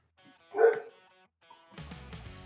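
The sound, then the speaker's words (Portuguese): A dog named Morelli lets out one sharp, fairly loud bark, followed by a brief pause and then a stretch of softer, scrappy noise; no one speaks. “O Morelli, o Morelli já quer saber quem é.”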